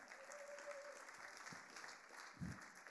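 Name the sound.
audience applause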